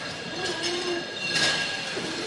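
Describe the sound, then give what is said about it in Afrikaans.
A forklift picking up a pallet runs with a steady mechanical rumble, overlaid by high metallic whines and a brief squeal, continuous throughout without any talking. “Wat is dat geluid? as die voorklop.”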